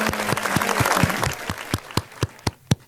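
A short burst of applause from a few people welcoming someone back during a live broadcast, thinning out into a handful of slow, evenly spaced single claps that fade toward the end.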